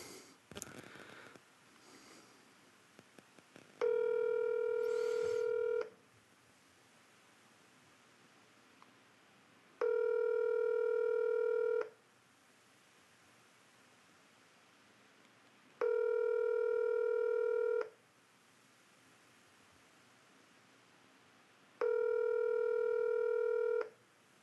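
A phone line rings out with no answer: four steady electronic ringback tones, each about two seconds long and evenly spaced, with quiet pauses between and a little rustling at the start.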